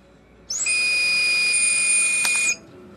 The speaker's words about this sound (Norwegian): Men for å få start på motoren, må hun først få et klarsignal fra alkolåsen om at hun er under den lovlige promillegrensa på 0,2.